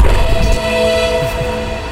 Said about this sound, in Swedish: Har du, har du eh, vår, vårt intro, vår jingle?